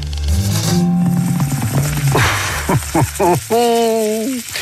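A steak sizzles on a grill, played on Radio Classique, with a steady, loud crackling hiss, while sustained tonal, voice-like sounds rise and fall over it before ending in a held tone.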